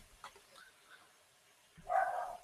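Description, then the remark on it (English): A dog lets out a short, excited burst of barking near the end, somewhat muffled, after a stretch of near silence. No one speaks. “There's my dog going crazy.”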